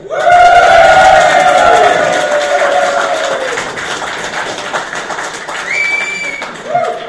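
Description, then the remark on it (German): A live audience at the Webmontag event in Hannover cheers and whoops loudly, many voices blending into a sustained roar with high shouts on top, easing off slightly toward the end as a few calls rise again. “Und äh, der Webmotor in Hannover ist natürlich mit dem geilsten Publikum überhaupt und das hört ihr jetzt mal.”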